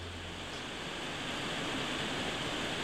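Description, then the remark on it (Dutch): Steady rain pours down at the Gardenista 2022 garden show in a continuous, even hiss with a dense patter throughout, unbroken, with no voices. “En je bent weer terug in de regen, zoals je hoort.”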